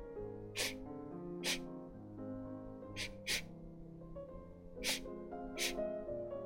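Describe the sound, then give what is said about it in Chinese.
Six short, breathy sniffs at uneven intervals, each a quick hissy intake of air, over a steady, soft musical backdrop. “那是一种吸气的声音。”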